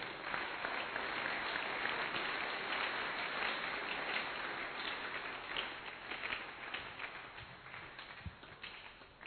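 An audience breaks into sustained applause for the Lord, dense overlapping clapping lasting several seconds before gradually thinning out toward the end.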